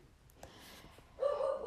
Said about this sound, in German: Ähm, ich hoffe, du hörst jetzt gerade nicht im Hintergrund meinen Hund bellen.